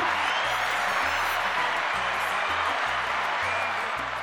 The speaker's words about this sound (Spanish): Aplauso a Primitivo, Primitivo.